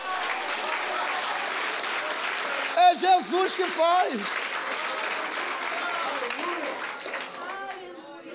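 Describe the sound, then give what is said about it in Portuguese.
A church audience applauds for Jesus in a steady, dense wash of clapping for about eight seconds, with a man's voice speaking briefly over it before the applause thins slightly at the end. “Você pode aplaudir se for para Jesus, ele merece.”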